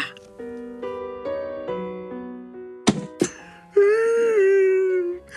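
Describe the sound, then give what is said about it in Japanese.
A man lets out a drawn-out, wavering sob that slowly trails downward. It comes right after two sharp thuds and a run of sustained tones, with no talking. “音感も…泣きをしましたなんでおめえが泣いてんだよ”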